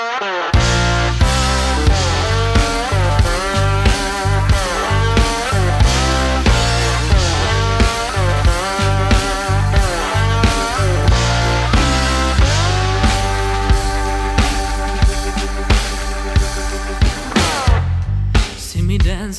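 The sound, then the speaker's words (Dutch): A full band plays its new single at steady volume, with a strong regular beat, bass, and layered harmonic instruments filling the whole clip. No voices are present. “Hier is … met hun nieuwste single, ….”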